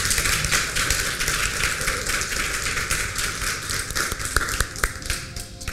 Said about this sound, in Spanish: Yo quisiera que le pudiéramos dar un fuerte aplauso.